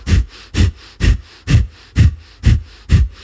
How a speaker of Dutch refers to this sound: En je blaast krachtig uit. Dan volgt de inademing eigenlijk vanzelf. Ja. dan volgt de inademing vanzelf. En dat is vervolgens de basis van de ademhaling die je doet.